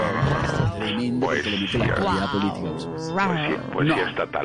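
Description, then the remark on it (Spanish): A person imitates a barking dog with a run of loud, growly vocal yelps, five or so uneven bursts packed closely together with no pauses for ordinary talk. “¿Se oye que le están ladrando?”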